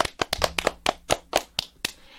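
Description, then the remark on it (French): Hands clap about ten times in just over two seconds, sharp and fairly steady, like a small round of applause from one or two people, given for teachers, with no voices. “Ils, mérite méritent une main d'applaudissement, oui, là”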